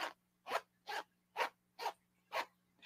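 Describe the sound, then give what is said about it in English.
A blue jeans zipper rasps up and down in seven quick, evenly spaced strokes, clear, over a faint steady low hum with no talking. “That is the sound of my blue jeans unzipping.”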